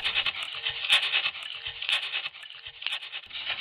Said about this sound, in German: Das kratzende Geräusch der Telefonleitung ist nun immer deutlicher im Haus zu hören.